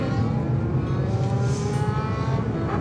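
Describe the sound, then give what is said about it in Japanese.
A motorcycle engine revs outside, its loud, continuous low rumble holding steady with slight surges throughout, no voices present. “いやーなんかバイクがうるさいな”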